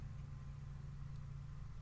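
A garbage truck engine idles outside a house, a steady low rumble with a throbbing hum that holds constant throughout, with no voices.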